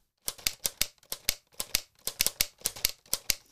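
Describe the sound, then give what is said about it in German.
Rapid mechanical clacks of keys being struck on a self-assembled model typewriter kit that does not really work and moves only one type bar, a dozen or so sharp clicks in uneven bursts with brief pauses, fairly quiet, with no talking. “Und das ist eine Schreibmaschine, die kann man sich zusammenbauen.”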